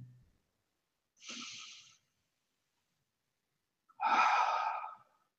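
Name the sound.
slow deep breathing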